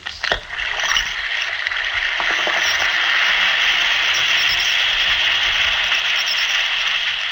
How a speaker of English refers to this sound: Listen to it fizz.